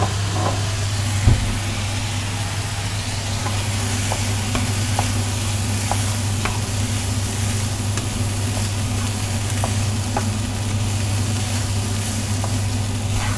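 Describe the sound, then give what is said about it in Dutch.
Steady, loud sizzling of food frying in a pan, stirred gently so it does not spill over the rim, with occasional soft scrapes and clinks from stirring and a low constant hum underneath, no voices. “Ik durf niet heel hard te roeren, want zal je net zien dat ik het weer over de rand eh, gooi.”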